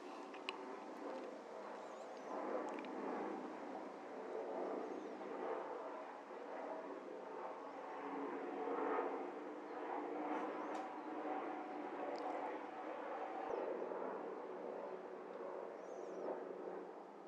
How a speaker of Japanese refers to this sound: ちょうどそのおそらく夕方前のそうね4時か3時か4時ぐらいだったかなで僕が座ってるとちょっとあの飛行機の音がしますね。